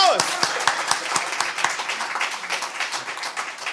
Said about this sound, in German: Herzlich willkommen zu einer weiteren Live-Ausgabe des Zuckerstücklis mit euch als Publikum. Vielen Dank, dass ihr gekommen seid. Applaus!